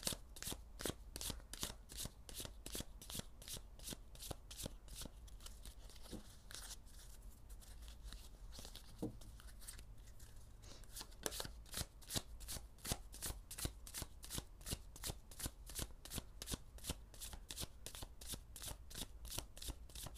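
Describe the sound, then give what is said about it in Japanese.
Cards being shuffled for about twenty seconds before drawing cards for a reading, a steady run of quick, crisp flicks and riffles with no one speaking. “えー えー、では今日もカード引いてまいりましょう”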